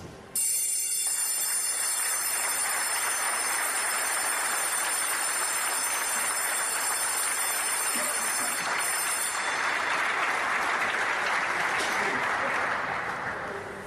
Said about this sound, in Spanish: Bueno, acabamos de escuchar el sonido de la campana o el timbrazo, como se le conoce a la pequeña ceremonia eh, que ocurre en la bolsa mm, de mexicana de valores, en la que pues este timbre o esta campanada indica el inicio y el fin de las jornadas